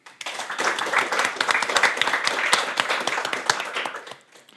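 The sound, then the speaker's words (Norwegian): A crowd breaks into applause for a book critic introduced on stage at a literary event, many hands clapping in a dense, steady patter that holds for several seconds before tapering off, with a murmur of voices mixed in. “Eh, og gi en stor applaus til Karina.”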